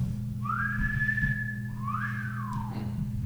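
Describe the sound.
A person imitates a wolf whistle: a rising whistle held steady, then a second swooping rise and fall, loud over a low steady hum.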